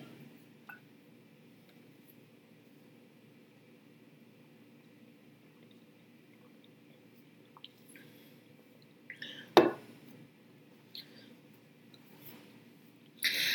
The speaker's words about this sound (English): Let me take a drink of water.